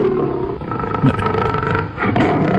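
A lion roars loudly, a deep, rumbling, sustained growl that swells and rolls on for a few seconds with no talking over it.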